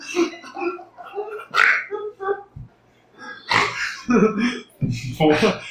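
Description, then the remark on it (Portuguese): A person makes snorting, pig-like grunts in several loud bursts, with a short quiet gap midway before a denser run of grunting near the end. “Isso que vocês estão ouvindo, parece um porco, não é lindo.”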